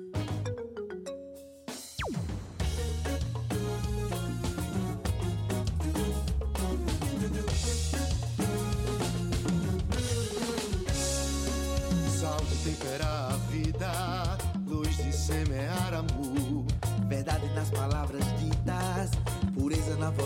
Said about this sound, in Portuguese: mas vamos ouvir a música dele.